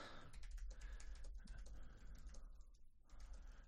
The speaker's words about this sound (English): I'm just typing up uh, Q and A, all this Facebook Live stuff.